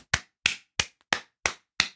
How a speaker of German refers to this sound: Ich klatsche. Ja, ich auch.